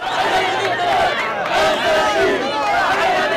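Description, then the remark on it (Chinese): A crowd of supporters cheers and shouts for Qassam Brigades militants hugging each other after completing a hostage handover to the Red Cross, a dense, continuous roar of many overlapping voices, staying loud and steady throughout with no pauses. “完成人质交接任务之后，卡桑旅民兵互相拥抱，接受支持者的欢呼。”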